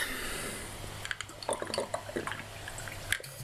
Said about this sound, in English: Let me just take a sip of water.